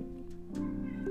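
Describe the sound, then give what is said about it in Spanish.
A female pet cat meows in a drawn-out, wavering cry lasting about a second, fairly quiet, with no talking over it. “Entonces dije, por ahí si escuchan a mi gata, es que la pendeja anda maullando.”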